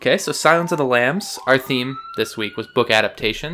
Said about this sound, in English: I don't know if you can hear that siren in the background, but it is literally directly outside of your window. Are they just circling? They're actually turning around in yeah. the parking lot.